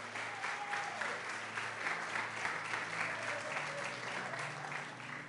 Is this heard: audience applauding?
yes